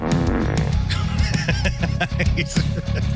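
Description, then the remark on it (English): Loud, buzzy fart sound effects blurt out in quick, irregular succession over a dense low rumbling backing that never drops away; the fart sounds are being played along with a band's music. “we were playing fart sounds with uh, …”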